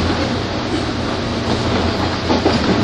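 A 201 series electric train on the Chuo Special Rapid service between Tokyo and Takao runs steadily, a continuous loud rumble with a low hum and faint rhythmic clicking from the wheels, no voices present.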